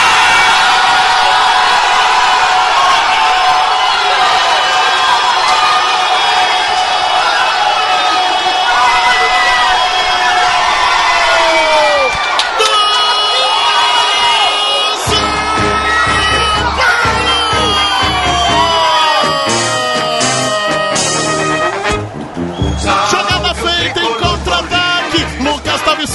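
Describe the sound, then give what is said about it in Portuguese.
A football crowd at a São Paulo match erupts in loud, sustained cheering after a São Paulo goal scored on a counterattack, with whoops and yells; midway the roar gives way to rhythmic, tonal chanting and shouts that carry on to the end. “a gente vai ouvir a bagunça que a gente fez no meio da torcida naquele jogo”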